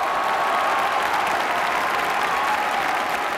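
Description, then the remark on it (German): Loud, sustained, frenetic applause from a large premiere audience, a dense, steady wash of clapping hands with no break or rhythm, and no voices standing out. “Der Applaus des Premierenpublikums fiel frenetisch aus.”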